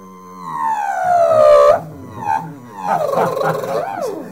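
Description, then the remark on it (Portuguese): A man imitates a power drill with his mouth: a nasal, whining tone that rises in pitch and cuts off abruptly, then a second wavering burst. It is fairly loud, with no other talking. “Ih, o vizinho é uma furadeira!”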